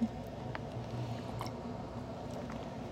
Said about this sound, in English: Have to sip some water. Just talking apparently kills your throat a little bit.